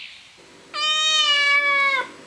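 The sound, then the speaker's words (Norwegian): A single drawn-out cat meow, loud, holding a steady tone for over a second before cutting off, set in a Norwegian forest on a summer day, with faint background ambience and no talking. “En katt Og det hører ikke sammen, skal vi tro zoolog Petter Bøckmann, som har fått katteelskerne til å kvesse klørne.”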